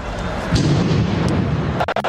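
A heavy, muffled boom of a bomb exploding during the 13 November 2015 attacks in France, shaking the ground, with a low rumble that lingers amid noisy background commotion and a few sharp knocks near the end.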